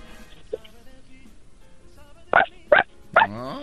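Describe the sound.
A child imitates a puppy's bark with three short, high-pitched yaps in quick succession, loud against a quiet background, the last one trailing off into a brief voiced whine.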